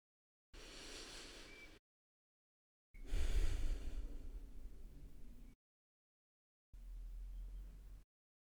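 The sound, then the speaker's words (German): A person consciously takes three deep breaths: three audible breathy rushes separated by short silences, the middle one longer and heavier than the others, with no talking. “lade ich dich nochmal ganz kurz ein, alles beiseite zu legen und ganz bewusst drei tiefe Atemzüge zu nehmen, damit wir gemeinsam hier und jetzt einmal ankommen.”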